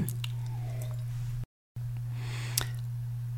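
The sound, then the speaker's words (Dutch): Someone takes a sip of a drink: soft wet mouth and swallowing noises with a sharp little click near the end, over a steady low electrical hum, briefly cutting to silence midway. “Even slokje hoor.”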